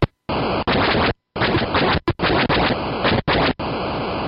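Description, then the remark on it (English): Atari 2600 Defender game sounds from the home version: harsh, buzzy bursts of static-like noise that cut in and out abruptly, about seven loud blasts separated by brief silences, with no voices. “now, the one you were playing at home sounded terrible. It sounded like this.”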